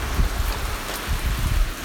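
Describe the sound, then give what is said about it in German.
Steady rain falls outside, a dense continuous patter with a low rumbling wash underneath, moderately loud, with no voices present. “Und es regnet draußen.”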